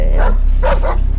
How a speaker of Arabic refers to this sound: حطوا جنبك كلاب بضلوا يعووا